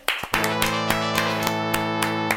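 Applause as steady, rhythmic claps keeping a beat over a loud, sustained musical chord, with no voices.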